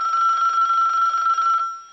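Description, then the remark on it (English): A telephone rings with a steady, bright electronic trill lasting about a second and a half, then cuts off, leaving a faint tone fading out. No one speaks. “Suddenly, the phone rings.”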